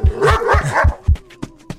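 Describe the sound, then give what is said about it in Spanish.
A dog barks rapidly several times in a loud burst, the barks running together before trailing off into a few sharper, isolated yips. “Ay, nanita, ese perro me va a alcanzar.”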